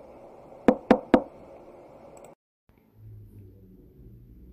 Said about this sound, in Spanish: La segunda cerdita se hace construir una hermosa cabaña de madera con la mitad del saco de monedas de oro. Una mañana, por la ventana, ve un cerdo muy fornido que llama a la puerta.